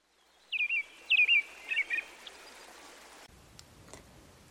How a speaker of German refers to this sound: Zart wispern die Goldhähnchen aus dichten Tannen.